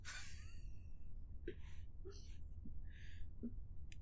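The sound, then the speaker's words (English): A person lets out a short, shrill screech at the very start, imitating a creature's high-pitched little scream, followed by soft breathy hisses and faint murmurs. “You said a high pitched little scream.”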